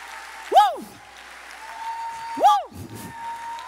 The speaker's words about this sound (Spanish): Yo quiero saber dónde están aquí las que dicen gracias, Señor. Por sostenerme, dale un aplauso fuerte. Fuerte al Señor.